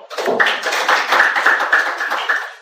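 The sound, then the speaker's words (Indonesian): An audience breaks into steady applause, many hands clapping in a dense, continuous patter that holds at an even, fairly loud level throughout, with no voices standing out. “Ayo berikan tepuk tangan dulu dong.”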